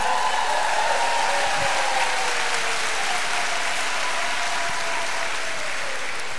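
A crowd bursts into steady, sustained applause for the speaker's mother as she stands up, dense clapping at an even loudness for several seconds with no speech over it.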